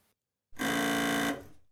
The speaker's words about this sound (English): a nice car horn since we're talking about pushing the red button.